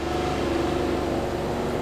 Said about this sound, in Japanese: 電車がですね3両3両編成なんですねお僕が乗ってきた電車がそろそろ発車って感じですかね、えー、3両しかないんですけど